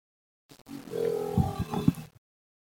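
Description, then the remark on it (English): A single recreated moa call, courtesy of Te Papa, of what might have been heard in the New Zealand bush long ago: a deep, booming, drawn-out grunt with a resonant, groaning tone, swelling and pulsing for under two seconds, heard alone. “Here is the moa, or at least a recreation of what you might have heard in the New Zealand bush long ago.”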